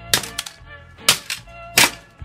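A hammer smashes a broken plastic cassette shell to get the tape out, in three sharp, loud cracking blows, each followed by a smaller knock or rattle of pieces, spaced roughly a second apart with no talking.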